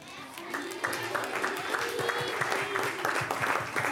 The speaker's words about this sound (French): En tout cas, bon, les enfants, une chose est certaine, c'est que vous avez tous été merveilleux. Donc vous pouvez vous applaudir.